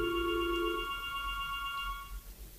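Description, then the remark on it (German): A telephone rings with a steady electronic tone for about two seconds before cutting off, sounding fairly quiet against a low background hum, with no one speaking. “Das, das, das Telefon, klingelt.”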